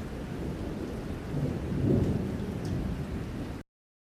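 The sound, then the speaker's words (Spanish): Steady rain hisses while a deep roll of thunder swells in the middle and fades, then everything cuts off abruptly into silence. “Vinieron la lluvia.”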